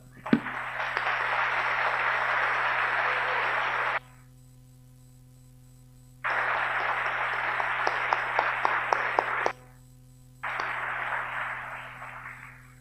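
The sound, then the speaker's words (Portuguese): An audience applauds the Holy Spirit at the preacher's call, in three sustained bursts of dense, even clapping, separated by brief pauses, with some sharper individual claps standing out in the second burst before the last one tapers off. “Podemos aplaudir o Espírito Santo?”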